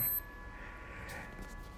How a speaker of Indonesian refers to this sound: sebentar alarm gue bunyi berarti air panas gue udah kelar